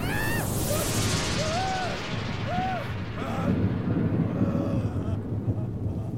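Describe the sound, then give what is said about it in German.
Deep, continuous, heavy rumbling of thunder rolls through a stormy roar during a great storm at sea, with thin whistling tones rising and falling above the booming din. “Jedenfalls hörte ich Donnerschläge und andere Geräusche, welche die Natur nur im Zorne von sich gibt.”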